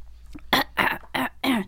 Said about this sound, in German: Ja, ja, jetzt, wo du es gesagt hast, hatte ich schon direkt das Bedürfnis, mich zu räuspern.